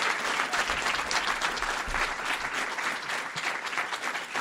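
Sustained applause from a live audience, a dense steady wash of many hands clapping at once, fairly loud, holding evenly for several seconds without any talking.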